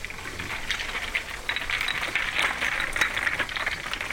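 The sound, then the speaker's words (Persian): A dense, steady hiss of heavy rain during a storm, with many sharp patters and rattling drops, loud and continuous throughout, with no voices. “یک روز طوفان شد و باران به مدت یک ساعت آنقدر شدید بارید که سیل را افتاد آب تمام رودها گلالود شد”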